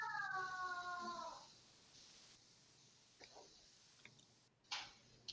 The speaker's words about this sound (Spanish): Creo que se quedó. Se quedó mute. le cayó el audio.